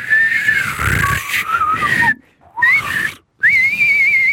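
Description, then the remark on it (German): A person whistles an imitation of a bird's trill in wavering, mid-pitched phrases, broken by two short pauses, with breathy noise underneath and no speech. “Naja, das war so wie so ein Triller, ein schiffender Triller. Aber langsamer und tiefer auch so.”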